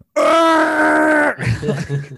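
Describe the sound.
A person imitates Dick Halloran's Chucky-like death scream: one loud, sustained, strained cry lasting about a second, cut off abruptly and followed by short bursts of breathy laughter.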